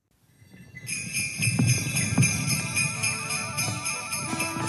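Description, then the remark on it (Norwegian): Real sleigh bells jingle steadily, a bright shimmering shake with a regular rhythmic pulse that starts after a brief quiet moment and continues to the end. “Ja, dette er lyden av ekte dombjeller, snø, nordlys, reinsdyr, julenissen.”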